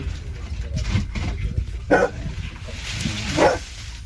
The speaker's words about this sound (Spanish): Siguen trabajando junto a sus perros y este es el momento del rescate, cuando descubren que hay vida bajo los escombros con los ladridos del perro.